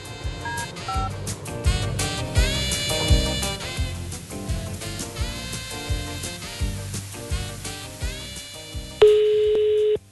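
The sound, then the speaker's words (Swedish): Busy instrumental music plays, then cuts to a steady, unbroken telephone dialing tone as a phone call is placed, holding at an even level for the final second. “Och vi ringer upp ytterligare en då, eller hur?”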